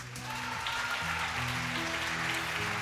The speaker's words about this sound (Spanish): Yo creo que se me hace un aplauso más fuerte, ¿no?